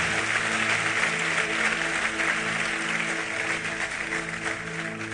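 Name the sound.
audience applauding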